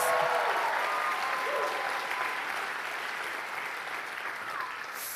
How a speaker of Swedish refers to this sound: Kan ni jubla lite och klappa ordentligt i händerna?